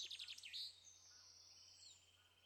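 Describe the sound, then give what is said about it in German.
Several birds chirp and twitter, starting with a quick burst of bright, high calls and fading into softer, thinner trills over a low steady hum. “kannst jetzt ganz achtsam Schritt für Schritt all das wahrnehmen, was um dich herum ist, was für Geräusche du wahrnimmst, die Vögel zwitschern. Das ist ein richtiges Konzert.”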